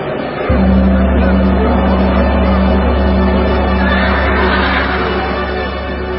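Horses neigh and whinny over a steady, droning background that starts abruptly and holds for several seconds, the calls fairly loud amid a busy, full-sounding scene.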